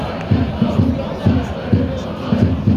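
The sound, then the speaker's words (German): Football fans in Block H chant and cheer together during an SV Atlas Delmenhorst match against Oldenburg, with Atlas leading 3-1, a dense roar of many voices with rhythmic, repeated shouted bursts pulsing steadily throughout. “Und äh, hinter uns hört man den Block H.”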